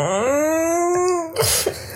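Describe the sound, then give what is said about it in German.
A small chihuahua gives a long, rising whine, then breathes in a couple of quick, noisy pants right into the microphone. “und ich meine, der Hund, der hier gerade auch ins Mikrofon hechelt,”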